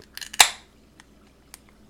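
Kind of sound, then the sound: food or drink, beer can cracked open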